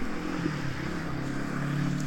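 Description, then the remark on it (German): A double-decker regional express train, a class 146 locomotive hauling six double-deck coaches, likely an RE30 toward Kassel, rolls past with a steady, loud, low mechanical rumble and droning hum that holds even throughout, with no voices. “Ja, es ist wahrscheinlich ein e RE30 in Richtung Kassel.”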